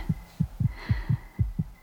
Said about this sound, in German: Mein Herz hämmert in meiner Brust.